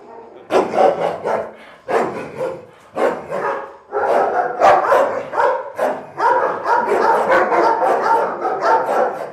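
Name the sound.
police dog barking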